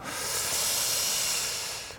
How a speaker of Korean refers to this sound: 형님 현직 AS 기사입니다. 밥솥에서 증기 빠지는 소리는 실제 증기 빠지는 소리입니다.